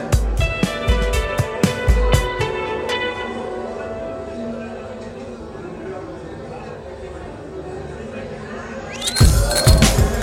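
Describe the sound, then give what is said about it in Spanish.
Busy ambience of the bar El Martínez: a steady murmur of crowd chatter with a quick flurry of bright glass clinks at the start and another burst of clinking near the end. “Un bar inclausurable.”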